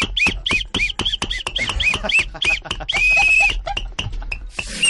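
A monkey calls in a rapid series of shrill, squeaky chirps, then lets out one longer, steady high-pitched cry before the chattering resumes. The calls are loud.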